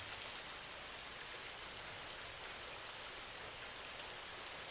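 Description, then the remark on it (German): Steady rain falls onto the ground in a dense, even hiss of countless drops, with faint individual taps standing out now and then, continuous with no voices. “Höre genau hin, wie das Geräusch entsteht, wenn der Regen auf den Boden trifft.”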